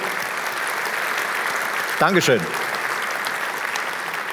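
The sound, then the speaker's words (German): Steady applause from an audience at the Magenta Security Fachkongress fills the whole stretch, a dense even wash of clapping for the partners who helped organize the event. Partway through, a man briefly says a word of thanks over it. “So, deswegen danke und nochmal Applaus bitte für all unsere Partner, die uns helfen, diese Riesenveranstaltung hier zu organisieren.”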